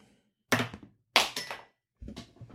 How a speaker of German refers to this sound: Alles gut? Ist nur ein Stift runtergefallen.